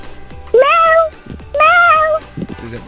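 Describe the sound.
A child's voice imitates a cat, giving two drawn-out, rising meows in a row, loud, followed by a brief murmur of other voice sounds.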